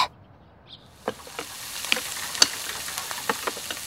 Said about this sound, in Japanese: 静まり返ったリビングでは朝食の準備の音が嫌に大きく感じられます。